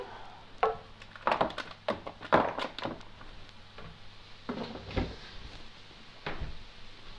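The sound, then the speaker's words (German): A refrigerator door is pulled open amid a cluster of sharp clunks and knocks, followed by a few scattered thuds and rattles as two eggs are taken out, with no one talking. “hole ich mir nur zwei Eier aus dem Kühlschrank.”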